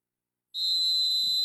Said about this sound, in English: I am the show's referee. So if there's something I don't like that I hear, I, I'll just blow this whistle.